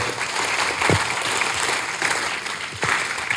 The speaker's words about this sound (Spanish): Otra, bienvenida. Un aplauso para los invitados.